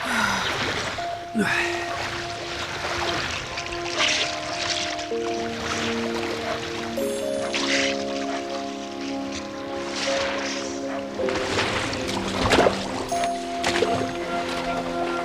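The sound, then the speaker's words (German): Water splashes and sloshes in repeated bursts as two people swim to a jetty beside a villa's grounds, moderately loud, with a steady musical backdrop of sustained tones underneath. “Neben dem Steg stiegen Tim und Gabi aus dem Wasser und betraten das Villengrundstück.”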